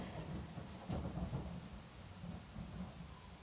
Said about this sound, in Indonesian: oh my god petir lagi I'm so sorry guys I'm so sorry ya yeah.